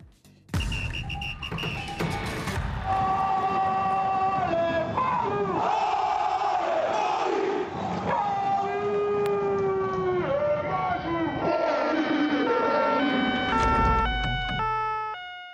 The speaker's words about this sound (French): Décidément, on l'entend de plus en plus, cette sirène d'ambulance des urgences.